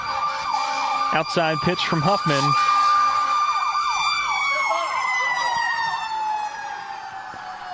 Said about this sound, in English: As the fire truck comes by